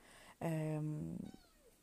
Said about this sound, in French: Donc, il y a mon chat qui veut dire bonjour.